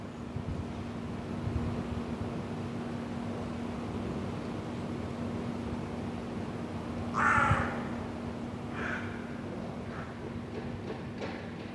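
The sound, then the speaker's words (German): A crow caws once or twice, harsh and echoing, in the inner courtyard of an old apartment building in Vienna's 1030 district, heard through open windows, over a steady hum of urban background noise, with a few fainter calls afterward. “Das höre ich, wenn ich die Fenster öffne. Altbau Innenhof 1030 Wien. Seit einigen Wochen wohnen hier auch Krien.”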